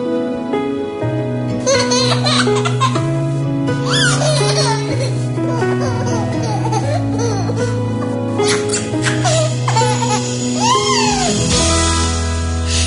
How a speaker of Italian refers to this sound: non solo sento la risata, ma sento pure i pianti,